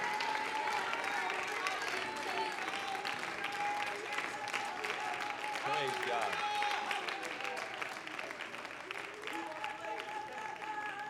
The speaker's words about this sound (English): Praise the living God. Clap your hands and lift your shout up above that clap. Hallelujah.